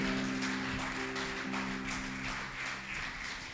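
A crowd claps to glorify God's name, clapping steadily for several seconds, a dense, even wash of hand claps, with sustained low instrumental tones held underneath. No one speaks.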